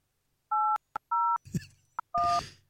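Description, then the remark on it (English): A telephone number being dialed: three steady two-pitch touch-tone beeps, separated by sharp clicks and a brief muffled rustle, the last tone overlapped by a burst of hissing noise. “That's Yeah, we'll give him a call.”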